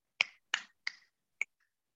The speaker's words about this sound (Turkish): Dediğimde aa bu bir parmak tıklaması. Ama Dedim, Arkası 3 yaptım. Bir 4, bir 3, bir de bir de tonlama yaptım.